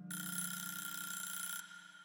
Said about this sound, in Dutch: Over de wekker gesproken, het is nu helaas tijd om deze boosdoener in het verhaal te introduceren.